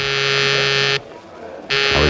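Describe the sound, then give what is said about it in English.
A harsh electric call buzzer drones loudly for about a second, cuts out briefly, then starts buzzing again, steady with a rasping, harmonic-rich tone. “thinking about it when the call buzzer zizzed in my ear.”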